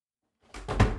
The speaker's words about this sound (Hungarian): Beütöttem csak csupán a lábam.